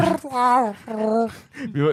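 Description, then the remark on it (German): A person voices a Wookiee roar imitating Chewie: three loud, drawn-out warbling howls with rising and falling pitch, separated by brief breaks, with no other sounds around them. “Ja, Chewie, wir landen gleich wieder auf Tatooine und tanken nach.”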